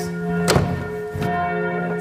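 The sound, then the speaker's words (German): A church bell tolls, striking the hour, its heavy strikes landing about every three-quarters of a second over a continuous, humming resonance that rings on between blows, as people step out onto a tower platform 56 meters up on a hazy day. No one speaks. “Und quasi pünktlich zum Glockenschlag geht es jetzt auf die Plattform hinaus.”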